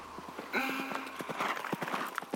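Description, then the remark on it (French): Galloping horse hooves beat out a quick, steady clip-clop rhythm, fairly loud, with a brief tonal swell near the start and no voices. “Alors ça galope.”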